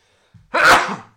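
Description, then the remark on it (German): A single loud sneeze, preceded by a short quick intake of breath, then a sharp explosive burst that trails off within about half a second. “Oh, jetzt muss ich niesen.”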